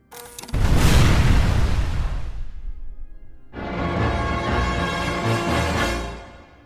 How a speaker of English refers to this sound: The explosion triggered by Subu went off in the distance. Jagdeep turned and stared at the smoke wreathed flames in the distance.